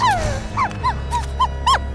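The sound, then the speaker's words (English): A dog barks desperately: a drawn-out whine followed by five quick, high-pitched yelping barks in an uneven rhythm, over a low steady rumble. “As Zack moves closer, the barks grow louder and more desperate.”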